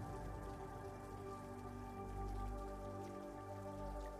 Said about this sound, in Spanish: Permaneces nadando en el río mientras llueve y disfrutas de sentir las gotas caer sobre tu cuerpo.